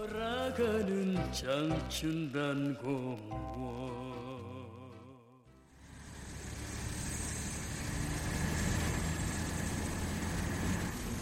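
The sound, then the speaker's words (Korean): A few seconds of melodic tones fade out, then the heavy engine of a water tanker truck setting off at night with drinking water starts droning, a steady low rumble with a noisy hiss that keeps going to the end, no voices. “나하고 한병장님은 한밤중에 급수차를 몰고 출발했지.”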